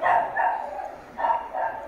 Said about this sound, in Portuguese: É um cachorro.